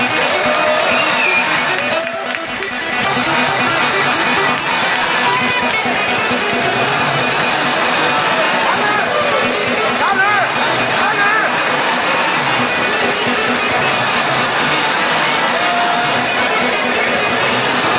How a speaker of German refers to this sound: Danke an die beiden Kämpfer. Noch ein schöner Applaus.